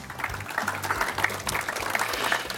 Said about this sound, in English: Please give yourselves a round of applause for being here.